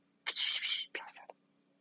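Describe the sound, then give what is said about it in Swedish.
A voice imitates rustling in a forest with soft, hissy whispered noises: one long breathy sweep, then a shorter crackly burst ending in a quick click, quiet. “Det började prassla i skogen. Först lite grann.”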